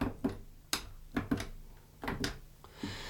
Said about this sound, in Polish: One są, trzeba po prostu jednak y, nacisnąć ten guzik, żeby się kliknął. Oczywiście słyszymy, jak klikamy.